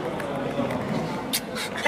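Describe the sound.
Two or three short, wet mouth smacks, each a quick crisp burst, set against a steady murmuring, voice-like background.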